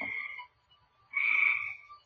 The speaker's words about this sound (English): just a recording I made a few years ago. Um, I hope you find it interesting. I'm having fun listening to it. I recorded all these damn frogs a singing.